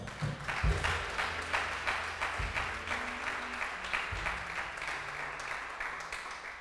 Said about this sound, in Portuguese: Dá um aplauso aí, ó.